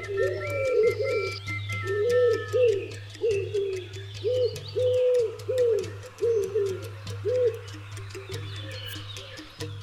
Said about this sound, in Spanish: Al ver esto, la mujer desesperada se clavó la misma espina y se convirtió en paloma. Desde entonces llora la muerte de su bello palomo.